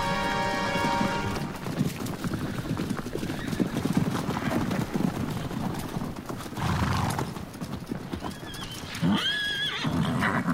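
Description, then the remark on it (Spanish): Many horses of an army gallop hard at full speed toward the city of Wutu with a dense, continuous clatter of hooves. Near the end one horse lets out a loud, rising whinny above the pounding. “Señor, hemos corrido por decenas de kilómetros, los caballos están exhaustos, ¿por qué no descansamos un poco?”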